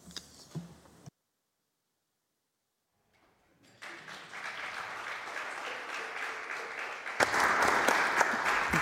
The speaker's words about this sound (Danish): Man må gerne klappe af oplægsholderne. Der er rigtig mange af dem, og det er spændende oplægsholdere, og de har noget på hjertet.